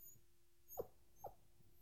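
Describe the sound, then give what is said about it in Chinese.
Two soft, high whimpers from a newborn puppy in the grass at night, each brief and spaced about half a second apart, faint over a quiet background with a steady low hum. “一名男子走过，脚边的草丛里忽然传出微弱的嘤嘤声，打破了寂静，”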